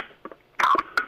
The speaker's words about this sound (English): That is the sound of an ice cold Red Bull being cracked open for week 10.